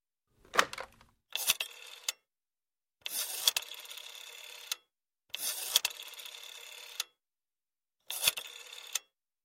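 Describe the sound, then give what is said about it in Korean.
A rotary telephone, borrowed at an all-night pharmacy on the corner of Bush and Taylor, being dialed: several short bursts of whirring, clicking returns with brief pauses between them, fairly quiet, with no voices. “번호를 돌린 뒤 잠시 후에 말했다.”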